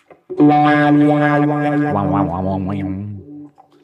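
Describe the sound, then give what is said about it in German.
An electric guitar, run through delay and reverb effects from hardware pedals mounted on a two-tier board, plays sustained chords and bent notes that swell and waver, then ring out into a fading, echoing tail. It is fairly loud, with no talking over it. “Dann ist ein Delay und ein Hall einfach.”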